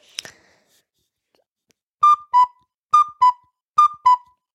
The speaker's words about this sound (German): klingt ja wie Kuckuck. Ja. War das auch ein Kuckuck? Ich glaube schon.